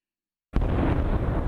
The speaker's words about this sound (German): Explosionen in Kabul. Eine Moschee wird von Kämpfern der Terrormiliz IS angegriffen während des Freitaggebets. Als das schiitische Gotteshaus voll mit Gläubigen ist, sprengt sich ein Selbstmordattentäter am Eingang in die Luft.